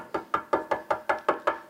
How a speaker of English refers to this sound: Sin. That spirit voice knocking at your door.